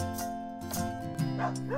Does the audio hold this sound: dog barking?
yes